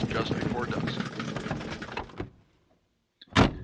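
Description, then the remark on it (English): A car trunk being opened after a flat tire, with the jack and spare inside: a couple of seconds of dense rattling, clattering noise, a pause of near silence, then a single short, sharp latch-like clunk. “I walked around and opened the trunk.”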